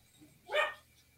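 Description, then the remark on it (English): A dog gives a single short bark, sharp and fairly loud, against a quiet background with no talking. “well, that's my that's my dog.”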